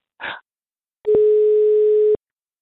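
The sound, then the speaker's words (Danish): A single steady telephone ringing tone of an outgoing call sounds for about a second, clear, after a brief soft rustle of noise, as the call goes through. No one speaks. “Og vi kan høre, den går igennem.”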